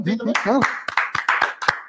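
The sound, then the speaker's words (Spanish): A man's voice speaks briefly, then scattered audience applause follows: a handful of sharp, evenly spaced claps over a steady crowd wash, moderately loud; the applause is called for cleft palate. “Eh, pues un aplauso para la otra también, para el paladar.”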